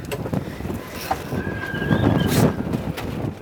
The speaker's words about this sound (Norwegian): Vinden er til å føle på når hjemmet ditt ligger helt ytterst på gjestebrygga i Alta.